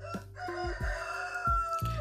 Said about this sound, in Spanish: Porque el gallo canta a las 5 y 40 45 y media de la tarde. Porque el gallo canta a 5 y media de la tarde se levantó de la siesta.